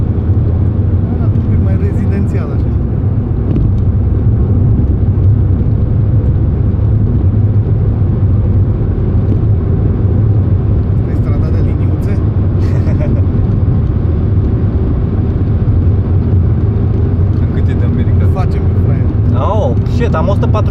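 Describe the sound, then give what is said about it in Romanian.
A car cruising on an expressway outside town: a loud, steady low rumble of engine and road noise that holds constant for the whole stretch, with a faint higher hiss of tires and wind above it. “Suntem pe autostradă, suntem pe autoban, exact, frate. Suntem pe drumul expres.”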